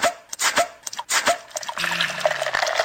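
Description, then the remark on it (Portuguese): Beer, called the coldest in town at Léo Petiscaria, glugs and splashes in uneven bursts, then settles into a steady, fizzy pour filling a glass, fairly loud, with no voices. “Léo Petiscaria, que tal agora a cerveja mais gelada da cidade?”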